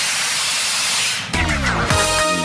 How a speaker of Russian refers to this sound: Снова ну, сорвал, сорвал стоп-кран. Стоп-кран!